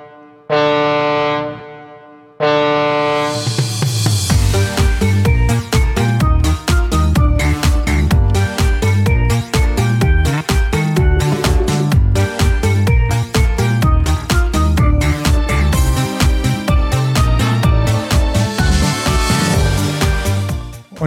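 A deep, droning ship foghorn blast with rich harmonics opens a song, sounding alone for about two seconds, then a second blast swells straight into a loud, steadily beating song.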